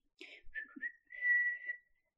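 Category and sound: human body sound, casual whistling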